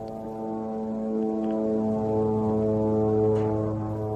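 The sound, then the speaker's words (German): A steady, droning buzz of a drone hangs overhead in the Gaza Strip under a blue sky with a few clouds above house roofs, holding an even pitch for the whole stretch and swelling slightly louder toward the end, with no voices. “Auf diesem Video ist Himmel zu sehen, blauer Himmel mit so ein paar Wolken und ein paar Kanten von Häuserdächern und die ganze Zeit hört man das Brummen einer Drohne.”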